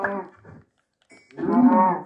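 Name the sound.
cow mooing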